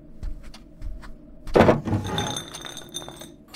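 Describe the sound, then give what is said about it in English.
A desk drawer slides open with a quick scraping thud, and a vodka bottle clinks and rattles inside it for a moment afterward. Soft knocks come just before. “Try the desk drawer.”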